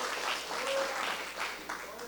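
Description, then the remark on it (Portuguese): A crowd breaks into sustained applause, a dense wash of many hands clapping at steady loudness for a couple of seconds, with faint voices mixed in beneath. “Dê uma aplauso a Jesus, irmãos.”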